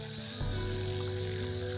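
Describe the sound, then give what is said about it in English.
A dense, steady chorus of frogs croaking in light rain beside a road near a jungle, a continuous droning buzz that swells slightly louder partway through, with no voices. “and yeah, it's time for raining so that frog is the frog sound is coming and it's little bit raining”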